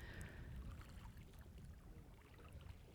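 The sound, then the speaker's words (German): Quiet sea water lapping gently and steadily at the seashore in Dahab, a soft continuous wash with faint splashes, with no voices. “Vielleicht hörst du ja ganz leise das Meer plätschern.”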